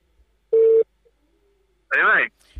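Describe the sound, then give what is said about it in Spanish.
A short, steady electronic telephone tone sounds clearly for a moment, followed by a brief warbling, buzzy burst over an otherwise quiet line, as a call from the United States to a police officer's cellphone in Bayamo is connecting. “Vamos a llamar a teléfonos celulares.”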